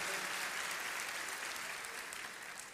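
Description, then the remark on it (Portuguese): An audience at a Christian church service claps steadily in a dense, continuous wash of applause that holds strong throughout and eases off only slightly toward the end, with no voices standing out. “Dá outra salva de palmas.”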